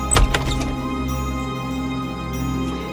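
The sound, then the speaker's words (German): A door opens, as Snow White opens the door in the fairy tale: a low thud and a few quick latch clicks in the first half-second, then a steady low hum lingering underneath with no voices. “Er gefiel Schneewittchen so gut, dass sie schließlich die Tür öffnete.”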